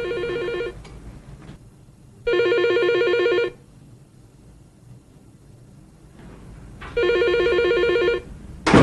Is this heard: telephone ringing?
yes